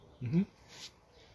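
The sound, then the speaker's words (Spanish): A single quick, moderately loud sneeze: a short voiced intake followed by a sharp, hissing burst, then quiet. “¡Salud!”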